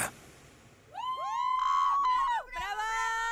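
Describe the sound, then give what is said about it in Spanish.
A recorded scream played as a show intro: loud and high-pitched, it swoops upward and holds for over a second, breaks off briefly, then rises again in a second shout, prominent. “Está bien, mejor directo, directo al grano, el grito.”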